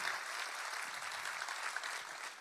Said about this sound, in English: And a shout out to our family at SCI Chester in partnership with God Behind Bars. Show them some love, family. Clap for them. Let them know we love them.